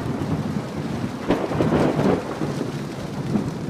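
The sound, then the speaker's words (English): Heavy rain pours down in a dense, steady hiss while a deep rumble of thunder rolls through, swelling briefly before fading back into the downpour. “The rain pounds them.”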